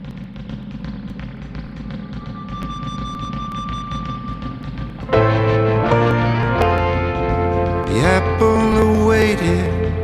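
A song with sung English vocals plays. A dense, washy instrumental intro gives way after about five seconds to a louder full band with steady bass notes and a strong sustained melody.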